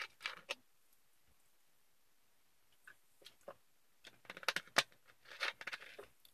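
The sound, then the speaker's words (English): A quiet sip of fizzy Sprite soda, with scattered crackling pops of carbonation that grow busier toward the end. No one speaks. “Let me take a sip for my Sprite.”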